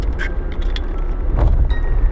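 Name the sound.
inside a moving car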